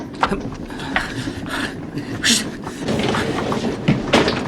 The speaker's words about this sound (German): Hört ihr das? So ein Klopfen. So ein Klopfen. Ja, das kommt aus dem Speisewagen.